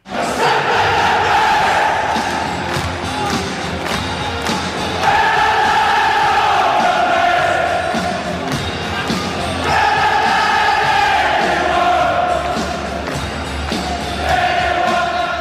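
A huge stadium crowd of Rangers Football Club supporters in Scotland roars and cheers without pause as the team enters the field, the din swelling in waves with chanting voices and occasional deep thuds beneath, loud and dense throughout.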